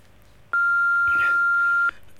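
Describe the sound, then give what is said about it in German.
A single answering machine beep: one steady, high electronic tone holding for over a second, loud and clear against a faint background hiss, then cutting off abruptly. “Sprechen Sie nach dem Piep.”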